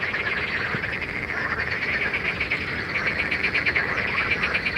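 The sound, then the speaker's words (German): A dense chorus of hundreds of frogs croaking to attract females fills the air, a loud, continuous wall of overlapping pulsing calls with no pauses and no voices. “Hunderte von Fröschen buhlen also laut quakend um Weibchen.”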